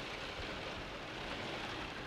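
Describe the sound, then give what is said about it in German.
Steady rain pattering on a Velux skylight window in Cologne, heard up close with the microphone held to it, as a dense, even hiss of countless drops with no voices over it. “Aber wirklich, ich sitze hier unter dem Velux-Fenster. Ich gehe mal ganz kurz, ich halte das Mikro mal da so ran.”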